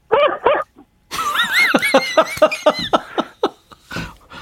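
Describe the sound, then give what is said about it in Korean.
A person mimics a small dog, giving two quick yips, then a string of whiny, high-pitched barks and yelps in an uneven rhythm, close and fairly loud. “강아지 소리를 조금 합니다.”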